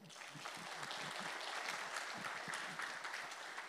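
Steady audience applause fills the whole stretch, a dense crackle of many hands clapping at an even, sustained level with no voices rising above it.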